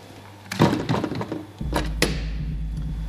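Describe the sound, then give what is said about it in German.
The heavy door of a container housing a huge X-ray machine in a hall is pushed shut with a burst of loud metallic clanks and scraping, then two sharp latching bangs as it is locked by hand, while a steady low hum continues underneath. “Dann kann ich die Tür schließen.”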